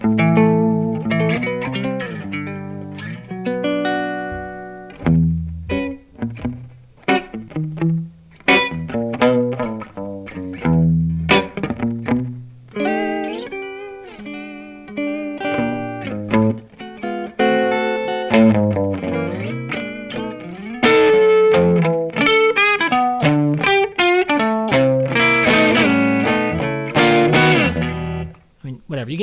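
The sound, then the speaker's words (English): A Hofner Jazzica electric guitar (Zane Carney signature model) played through an HAO Rumble Mod overdrive pedal and an AD999 with slapback on. Its notes break up with a gritty, crunchy edge like a small old amp pushed hard, with strummed chords and single-note lines ringing for about half a minute. “It's breaking up as though it was through an old small amp.”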